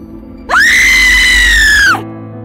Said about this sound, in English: I think you need to scream. What? I don't know why, but I think you need to scream right now.